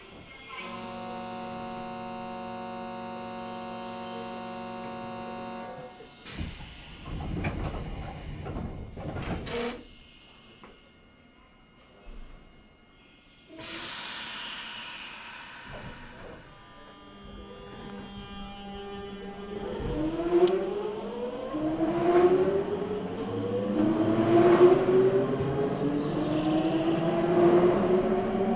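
A Nankai Electric Railway Nankai Line local train runs on rails from Izumisano toward Hakotsukuri, Japan: a steady electric motor whine gives way to clunks and rattling rumble, then a rising, pitch-climbing hum as the train picks up speed, growing louder.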